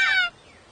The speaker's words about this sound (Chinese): Listen，威力，那是你树鸭家人的叫声，我们一定越来越接近了。